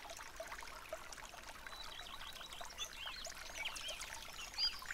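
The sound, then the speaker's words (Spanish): A steady stream of water and oil being poured together, a continuous bubbling trickle with small splashes, moderately loud, with no voices. “Es como cuando mezclamos agua y aceite.”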